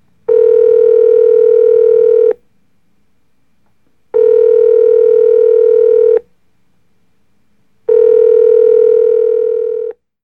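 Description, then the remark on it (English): A telephone rings on the line as a call is placed to someone, three long buzzy tones of about two seconds each separated by short pauses, loud and steady with no one talking. “So let's give her a call and get her take on psychics and mediums and all things the spirit world. Let's give her a ring.”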